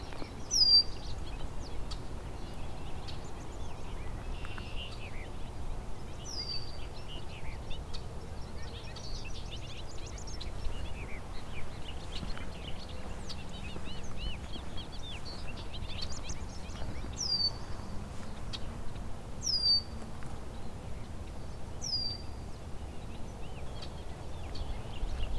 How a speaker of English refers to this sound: bobolinks, a lot of jumbled notes, unique sounding.